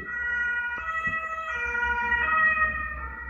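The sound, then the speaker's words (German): An ambulance or fire engine siren wails steadily outside as it drives around a house, its harmonic tones shifting pitch as it passes, with low road rumble underneath and no talking. “Ich nehme den Podcast auf und ständig fährt Rettung oder Feuerwehr bei mir ums Haus.”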